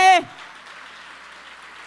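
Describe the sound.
An audience breaks into steady, sustained applause for the Lord right after a man's voice cuts off, the clapping forming an even wash of noise at moderate volume.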